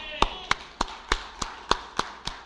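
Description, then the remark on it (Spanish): A single preacher at a church service claps about eight times in a steady, brisk rhythm, each clap a sharp, bright smack with no voices over it. “Por eso usted está aquí hoy en la casa del Señor y yo mismo me daré un aplauso por eso.”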